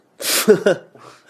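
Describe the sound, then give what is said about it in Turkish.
A loud, rushing breath bursts out, followed by two short voiced gasps, heavy, like someone panting hard for a moment before it fades into a softer, breathy murmur: the breathing of a still-living person who has been cut apart and made into a chair. “Nefes alan sandalye. Nefes alıyor.”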